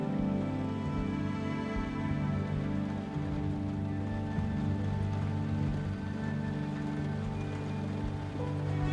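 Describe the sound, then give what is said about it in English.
Steady rain patters against a window, a continuous soft drumming of drops with a low, even rumble underneath, moderately loud throughout with no voices. “Now, begin to focus on the sound of the rain on our window.”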